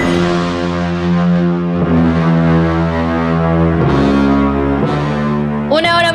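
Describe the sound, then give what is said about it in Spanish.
Eerie, droning background music for the Jueves de Misterio segment of the show Don Cheto al Aire, with low sustained tones and layered harmonics, shifting chords every second or two, steady and loud throughout, with a brighter distorted swell at the end. “de Don Cheto al aire completamente en vivo y si escucha esta música de fondo, sí, vamos a tener jueves de misterio.”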